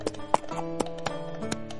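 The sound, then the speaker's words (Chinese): The hooves of a donkey ridden by a father and son clip-clop in about six sharp, hollow knocks at an easy, slightly uneven walking pace as they arrive at the town market, sounding over a soft, sustained musical backing. “父子俩一起骑着驴。终于来到了镇上的集市。”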